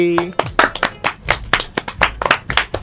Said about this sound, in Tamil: இப்போ ஜோரா லாஸ்டா எல்லாம் சேர்ந்து கை கை தட்டலாமா ஒன் டூ த்ரீ